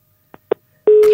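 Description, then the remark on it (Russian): A telephone busy tone after a caller disconnects: two brief faint clicks, then a loud, steady mid-pitched tone that starts abruptly and holds to the end, with no talking. “Так, Вячеслав отсоединился.”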